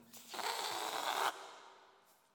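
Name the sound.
deep exhale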